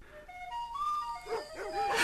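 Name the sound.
dogs barking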